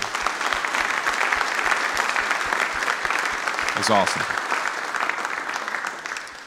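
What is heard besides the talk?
audience applause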